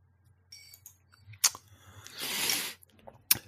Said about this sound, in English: I love the way you pondered over the ice cube you dripped out your mouth into your glass. Yeah, I, I just it was just the thought of him starting. It just made it fall out my mouth.